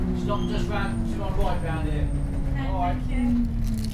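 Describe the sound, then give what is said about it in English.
A steady low engine rumble inside a moving local bus travelling from Stretton into Stockton Heath, with indistinct muffled voices of passengers drifting through the drone. “Okay, so there's me travelling on one of the local buses down from Stretton into Stockton Heath.”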